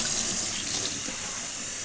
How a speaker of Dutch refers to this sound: Oké, ik ga nu, uh, het was warm water, ik ga nu even spoelen met koud water en dan eh, ben ik klaar.